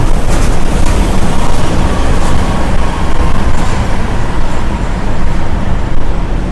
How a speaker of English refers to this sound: and my bus is coming.